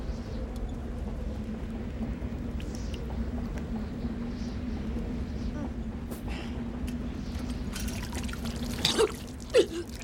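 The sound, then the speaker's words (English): A brief, sharp sneeze bursts out near the end, over a steady low hum and faint background noise that runs through the whole clip. “There, Bless you.”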